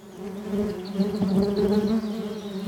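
bees buzzing

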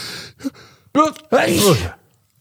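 human sneeze

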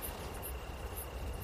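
crickets chirping at night

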